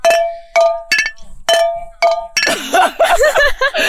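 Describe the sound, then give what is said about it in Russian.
Five quick, bright taps on a glass wine bottle ring out in a loose rhythm, playing different notes, each leaving a short resonant tone, before people start talking and laughing. “На самом деле подкаст, мне кажется, будет состоять из звуков бутылки.”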